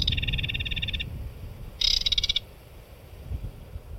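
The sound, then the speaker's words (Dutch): A reed warbler in a reed bed sings two harsh, grating, croaky phrases, a longer one and then a shorter burst after a pause, fairly loud, over a low rumbling background of wind or water. “En een karakiet.”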